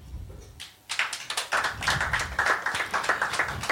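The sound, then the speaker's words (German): At a live recording, an audience breaks into clapping to show they like the word "Heimat", starting sparse and building to a steady patter of many hands, dense and fairly loud with no voices over it. “Würdet diejenigen, die, den Heim, die das Wort Heimat mögen, mal klatschen?”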